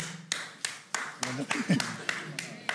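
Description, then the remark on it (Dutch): Steady, rhythmic audience clapping sounds at a moderate pace, sharp, while a person talks briefly underneath the claps partway through. “kunnen wel blijven klappen.”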